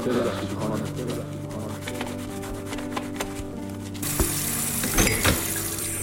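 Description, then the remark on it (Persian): Steady hiss of running water that swells louder halfway through, with a few faint clinks and knocks of dishes against each other scattered over the flow. “بالاخره صدای شرشر آب و برخورد ظروف با هم قطع می شود.”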